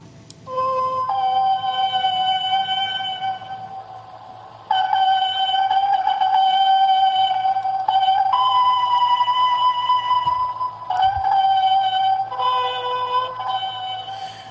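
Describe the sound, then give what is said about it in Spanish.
An ancient excavated trumpet, one of two found (one silver, one copper), blares long, loud, sustained notes in a test playing, alternating between two nearby pitches with brief breaks, over a steady low hum and the hiss of an old recording. “Vamos a escuchar eh, esa prueba que se hizo con las trompetas que se hallaron.”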